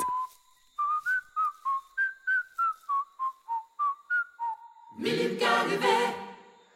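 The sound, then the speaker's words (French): Someone whistles a bouncy little tune from a pineapple festival (fête de l'ananas), about fifteen short clear notes in a steady rhythm, alone, before a brief burst of broad, rushing noise ends it. “Sur la route, tout en admirant les fleurs blanches des fleuris Noël, Compay Manicou chantonne une chanson de la fête de l'ananas qui lui reste dans la tête.”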